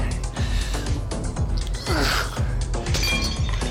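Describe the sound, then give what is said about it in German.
A second-floor window pane shatters loudly when struck by a thrown potato, followed by a dense stretch of crunching, tinkling glass fragments that keeps going for several seconds with no voices. “Die nächste traf immerhin die zweite Etage und schlug dort eine Scheibe ein.”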